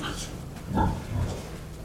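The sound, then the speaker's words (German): Pigs grunt and oink in short, low bursts as they rise after being sprayed with temperature-controlled water vapour, not panicked but occasionally jostling. One grunt in the middle is louder and one after is softer, set against a steady, noisy background in a barn hall with underfloor heating. “Die Schweine erheben sich. Nicht panisch, aber hin und wieder wird gerempelt.”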